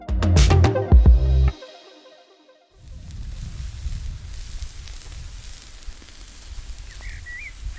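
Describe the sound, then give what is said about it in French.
A brief loud clattering burst, a moment of silence, then merguez and chipolata sausages crackling and sizzling on a barbecue grill at a house rented for the weekend, in a steady, dense crackle with no voices. “Vous l'entendez là, ce petit bruit Ce crépitement C'est de la viande qui cuit sur un barbecue. Des merguez et des chipolatas en l'occurrence.”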